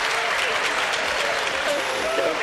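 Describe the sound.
Steady, dense applause on a Silver Rain Radio show, played for a caller who guessed correctly, fills the whole moment at an even loudness, a continuous crackling wash with faint tonal traces of voices or music underneath.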